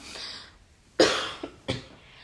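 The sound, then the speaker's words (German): Two sharp coughs, the first loud and abrupt with a short follow-up burst, the second a moment later, with quiet breathy noise in between and no talking. “Jetzt muss ich husten, warte mal.”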